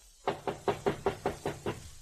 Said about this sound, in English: A knock on the door produced results.